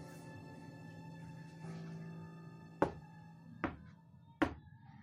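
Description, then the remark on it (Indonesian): Three sharp, evenly spaced knocks on a door ring out over a steady humming tonal background, each hit crisp and fairly loud against the drone. “Terdengar suara seperti pintu yang diketuk dengan kencang”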